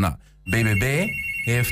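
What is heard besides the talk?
telephone ringing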